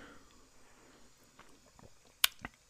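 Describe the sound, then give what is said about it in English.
Someone takes a sip of water, with a few sharp wet clicks and gulps near the end after a quiet stretch of faint shuffling. “I'll tell you what I think about it after I get another another drink of water.”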